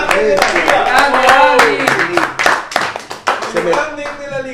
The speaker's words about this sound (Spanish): Se merece un aplauso